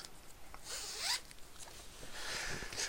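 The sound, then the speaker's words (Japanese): Laundry being loaded into a washing machine: loud, steady rustling and swishing of fabric with quick zipper-like scrapes, continuing for about three seconds without any voices. “で今ね洗濯物回してから行こうと思って洗濯機に洗濯物を入れてるとこです”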